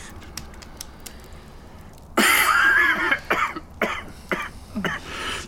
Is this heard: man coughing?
yes